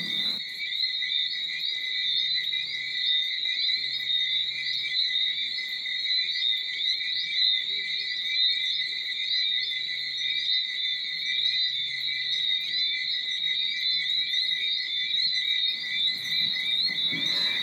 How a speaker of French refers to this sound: En somme, une approche scientifico-musicale de la stridulation du grillon. Mais avant de définir le mot stridulation, voici un enregistrement des grillons.